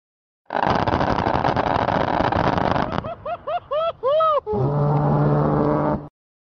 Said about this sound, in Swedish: det första man hör det är ju nedslagen av granaterna och sen hör man ju själva avfyringen